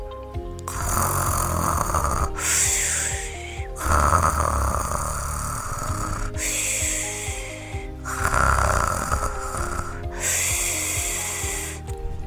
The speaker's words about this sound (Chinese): 丹丹睡得好熟，好熟，好熟。哎呀，它还会打呼呢。